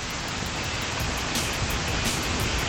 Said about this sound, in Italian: Qui piove, sta piovendo, non, non, non fa niente.